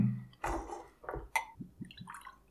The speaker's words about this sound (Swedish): Se om det går att hälla ur den här.